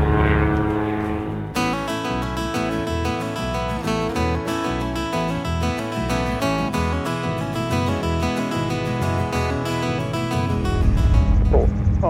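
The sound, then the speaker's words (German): A Cessna 150's propeller engine drones steadily in flight as the plane turns into the right downwind for runway 07 and leaves the control zone toward Ratzeburger See, a loud, sustained buzzing hum with strong low harmonics that rises slightly in intensity toward the end, with no voices. “Cessna 150, dreht jetzt in den rechten Gegenanflug Piste 07, verlassen Sie die Kontrollzone mit einer Rechtskurve direkt auf Kurs Richtung Ratzeburger See.”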